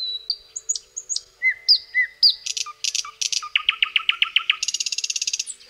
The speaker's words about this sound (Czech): No ale nejkrásněji tam se nabízí takové ty, ty klasické druhy, jako je slavík